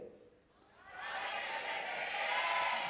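A large audience shouts the phrase 'no dejes de creer' (don't stop believing) in unison, their voices swelling from a quiet start into a loud, sustained roar.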